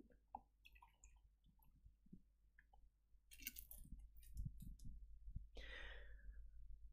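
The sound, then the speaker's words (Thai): Sips and swallows of a little water, drunk for a sore throat, with small wet mouth clicks and gulps, followed by a soft breathy exhale near the end. “แสบคอหอกินน้ำนิด”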